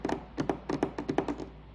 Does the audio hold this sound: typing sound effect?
yes